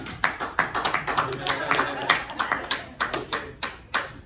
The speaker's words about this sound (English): Guys are throwing me off. Why the fuck are you clapping?